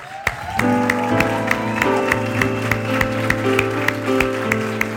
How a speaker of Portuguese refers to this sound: A gente quer te aplaudir, querido.